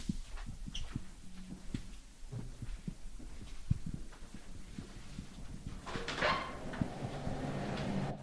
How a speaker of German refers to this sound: Es rauscht schon. Es rauscht. Klingt nach Tiefkühltruhe.